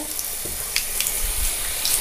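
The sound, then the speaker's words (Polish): Water runs steadily from a tap into a sink, a continuous hiss and splash with small gurgling bursts, no voices. “I się zakręcam wodę.”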